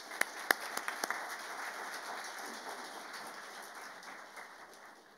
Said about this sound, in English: Um, and also one more round of applause for all of our volunteers here today. So thank you again.